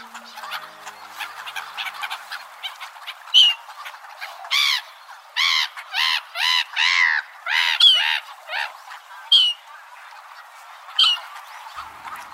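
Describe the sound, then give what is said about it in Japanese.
Black-headed gulls give a string of harsh, nasal squawks close by, loud and irregular, at the large pond in Toneri Park, Adachi Ward, Tokyo, over a busy background of many other waterbirds calling. “広大な公園の中央に大きな池があり多くの水鳥たちが集まっています近くに来たのはユリカモメです”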